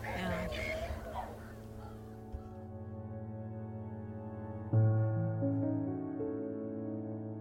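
Geese honk briefly at the start, a short flurry of calls over a rustle, before steady sustained musical tones take over and swell louder partway through.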